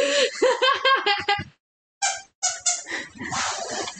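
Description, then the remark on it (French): A dog squeezes a cake-shaped squeaky toy, which squeaks repeatedly in quick, rhythmic, loud bursts, pausing briefly before a few more squeezes, with a voice laughing alongside. “Désolée pour cette petite intervention de Hagrid avec son cake.”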